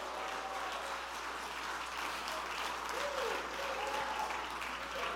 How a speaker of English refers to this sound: jump to your feet and clap your hands and shout, Rejoice! Rejoice!